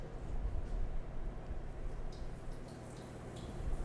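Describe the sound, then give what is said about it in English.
A small dusted test piece of food frying in hot oil, giving a steady, dense sizzle with scattered little crackles and pops throughout, with no one talking. “Hear that crackle and pop? That's what you want to hear.”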